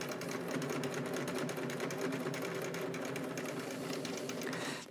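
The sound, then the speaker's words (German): A sewing machine fitted with an orange universal needle, size 90, stitches steadily during a live sew-along, its fast mechanical whir and rapid needle clatter holding an even, busy rhythm throughout, with no voices over it. “Livesewalong #26”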